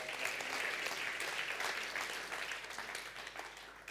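A crowd claps steadily, a dense wash of many hands that holds fairly loud throughout and tapers slightly toward the end, with no voices standing out.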